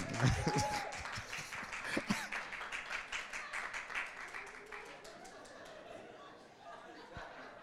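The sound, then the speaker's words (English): A church audience, prompted by the preacher during a service, breaks into scattered, dense clapping mixed with crowd murmur and a little laughter, loud at first and gradually thinning out after a few seconds. “yeah this is where you clap.”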